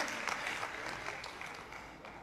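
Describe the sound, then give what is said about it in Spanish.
Women in an audience applaud steadily, dense clapping sustained without a break for a couple of seconds. “Mujeres aplaudan, tal vez eso les va.”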